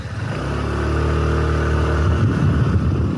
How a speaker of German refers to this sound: Vielleicht nimmst du uns mal mit auf die Fahrt auf dem Mofa über diese Insel, die ja geostrategisch eine durchaus interessante Lage hat.